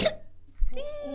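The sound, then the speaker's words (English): A single quick, sharp sneeze bursts out at the very start, moderately loud, then someone begins to speak right after. “Bless, Bless you.”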